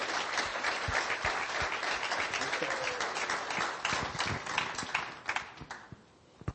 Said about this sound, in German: ich glaube, du kriegst nochmal einen richtig, richtig fetten Applaus dafür, dass du dich darauf eingelassen hast hier.